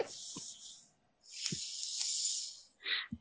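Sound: air conditioner running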